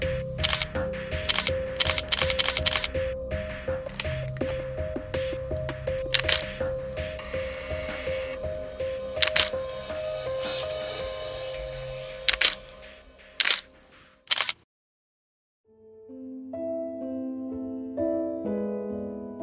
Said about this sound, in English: He brought the camera up to his face. The lens was cracked, but the shutters still worked.